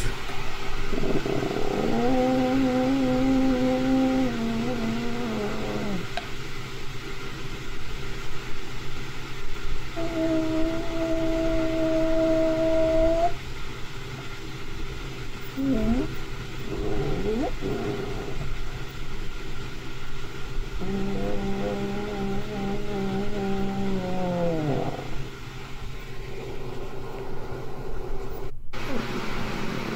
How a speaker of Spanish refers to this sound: Esta chava dice que no era ningún animal y eh, es un sonido de, del Sasquatch afuera de su casa de campaña. Ahí va.